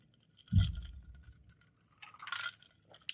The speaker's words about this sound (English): You know, now I'm thinking the rattling of the ice might be annoying to some of the, the, the viewers and listeners here, but you know what? They'll they'll have to deal with it. Look, you gotta do what you gotta do for the scotch.